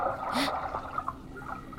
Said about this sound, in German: Ein Platschen. Ich schaue hoch zur Wasseroberfläche.